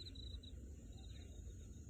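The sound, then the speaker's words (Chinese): Crickets chirp at nightfall in soft, rapid pulsing trills at a steady high pitch, rising and fading in short bursts over a low, continuous background rumble. No one speaks. “有没有听到蟋蟀的歌唱？”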